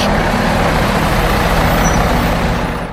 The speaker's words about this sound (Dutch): Nou, we gaan eens kijken in Lelystad. Daar werd een vrachtwagen vol met groenten geleverd bij de voedselbank.